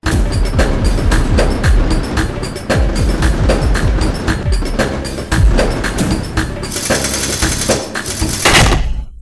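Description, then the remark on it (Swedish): A train rolls past on the rails, loud and steady, with a rhythmic clatter of wheels over the track joints and a hissing rush building toward the end. “Välj ett klimatsnällt sätt att resa i sommar. Med ETC Tåg”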